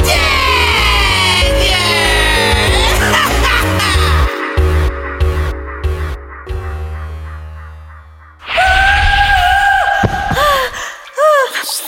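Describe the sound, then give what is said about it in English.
Dense, busy music plays for several seconds, then cuts to loud, high-pitched screaming with wavering, sliding pitch that fills the last few seconds. “Stop screaming.”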